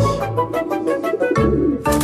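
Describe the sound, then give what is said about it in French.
A short radio jingle for the game 'Pigeon Pigeon' built around pigeon cooing: rhythmic, throaty coos pulse over a musical backing for about two seconds, loud, with no one talking. “Et vous allez rester avec nous pour Pigeon Pigeon, la dernière.”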